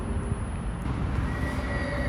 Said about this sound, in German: ist das Auto, was so fiebt. Das Auto fiebt so. Tatsache.